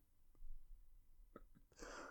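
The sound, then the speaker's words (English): A man sneezes: a few short, catching intakes of breath build up before a sharp, hissing burst of air. It's fairly quiet, with no talking. “He was sneezing.”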